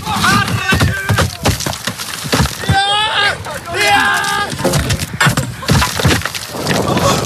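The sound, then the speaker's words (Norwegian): Rock tumbles down in a rapid series of loud, sharp thuds and cracking crashes that keep coming for several seconds, the stone finally striking the sea. Brief voices rise in the middle of the clatter. “Den her, det treffer jo ned i eh, havet til slutt av denne steinen.”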